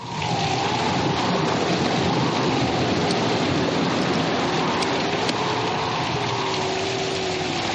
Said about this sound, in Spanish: La lluvia cae sobre la resbaladiza piedra.